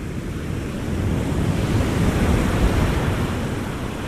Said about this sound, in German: wo ich so ans Meer gekommen bin, wo die Wellen richtig hoch waren